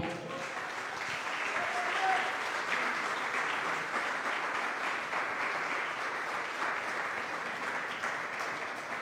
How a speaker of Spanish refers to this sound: Ahora, con todo esto, eh, eh, eh, porque te voy a decir más cosas hoy, así que qué tal si le das un aplauso al Señor.